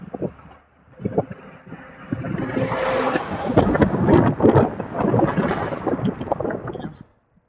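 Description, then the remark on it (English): A truck rumbles past on a road, its broad roar swelling over a few seconds, holding steady, then cutting off, with some wind-like noise mixed in. “There's a truck coming.”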